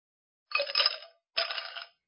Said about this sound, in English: The sound of adult ice cubes being dropped into a glass means it's cocktail o'clock.